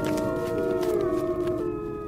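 Wolves howl in long, sustained, gliding tones, several voices overlapping into a steady chorus that fills the whole moment at moderate loudness, with no talking.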